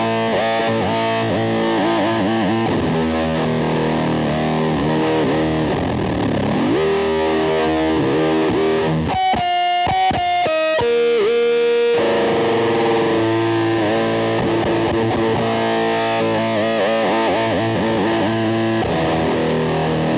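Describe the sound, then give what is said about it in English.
Buzzy, heavily distorted guitar run through a micro synthesizer pedal, sustained tones bending in pitch, with a stretch midway where the sound stutters and cuts in and out on the harmonics. Loud, no voices. “I'm using a, a, a, a micro synthesizer for that, so it's cutting out on my harmonics.”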